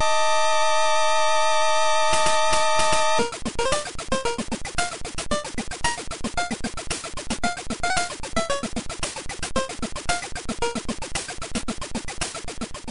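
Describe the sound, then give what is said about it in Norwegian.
Totaka's hidden video game melody, triggered in the Japanese version of a game by entering Totakeke as the player name: a sustained electronic tone opens, then a busy, bouncy tune with a steady rhythm takes over, fairly loud and with no one talking. “det er ulike måter å finne Totakas melodi i de forskjellige spillene.”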